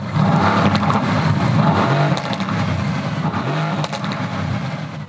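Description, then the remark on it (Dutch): An AMG GT's new 4-liter V8 engine revs loudly, a deep rumbling roar that rises and falls in pitch with throttle blips, with no voices over it. “Nieuwe 4 liter.”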